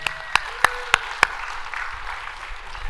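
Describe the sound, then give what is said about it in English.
Applause from a small audience for the helpers: a handful of sharp, evenly spaced claps stand out at first, then settle into a soft, scattered patter that fades over the next couple of seconds. “can we give a round of applause for our helpers here?”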